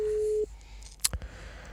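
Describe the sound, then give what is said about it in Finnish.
A steady, single-pitched telephone ringing tone sounds loudly for about half a second, then stops; a moment later comes a sharp click, like the line being picked up, as a call is placed from a studio's phone number. No one speaks. “Katsotaan, vastaisikohan Jussi puhelimeen. Voi olla, että ei tähän numeroon vastaa.”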